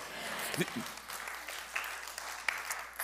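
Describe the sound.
An audience applauds, a steady, dense patter of many hands clapping at a moderate level throughout, with a few brief voices and cheers mixed in.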